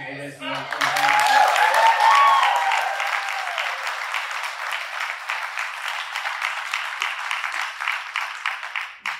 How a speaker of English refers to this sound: Um, just as also we clap for this too, uh, we do get to screw in two more light bulbs still